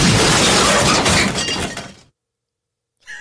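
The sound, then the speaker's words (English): A loud glass-shattering sound effect played from a soundboard bursts out, with shards scattering and tinkling for about two seconds before cutting to silence; a faint new sound starts just at the end. “He's just staring at me, and I've already told him that his soundboard was really dumb this time.”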